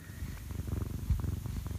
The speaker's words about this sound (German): Ich habe übrigens, wenn es hier schnurrt, das ist der Kater.